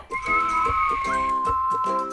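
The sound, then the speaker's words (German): A steady, clear whistling tone holds for about two seconds, sharp and prominent, while a rhythmic harmonic sound pulses underneath it a few times. “Da hat doch etwas gepfiffen.”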